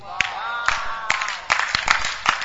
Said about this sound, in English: For those who are clapping, you are already getting there.